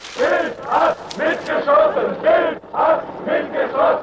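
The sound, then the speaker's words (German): A crowd of more than 2,000 demonstrators on the street shouts in unison, rhythmic chanted bursts repeating about twice per second, loud and steady with massed voices blending together. “Mehr als 2000 Demonstranten gehen auf die Straße.”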